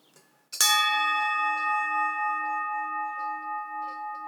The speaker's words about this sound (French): Et moi, j'ai toujours acheté les cloches euh, au son, quoi. Chaque fois, j'écoutais, je choisissais ma cloche au son. Il faut qu'elle garde le son.